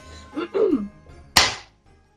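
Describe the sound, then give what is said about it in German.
A single sharp hand clap rings out crisply and fades quickly, following a short murmured vocal sound earlier on. “Klatsch nochmal.”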